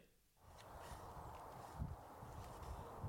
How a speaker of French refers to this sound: Ça, c'est le bruit du vent sur le coteau qui surplombe la vallée de l'Yonne. On est début mars, il est 9h, il fait 4 degrés